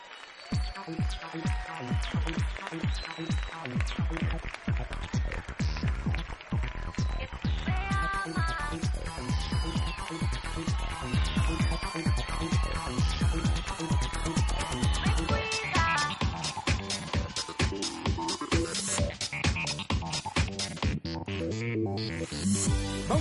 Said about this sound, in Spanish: después de este corte musical daremos lectura a estos mensajes.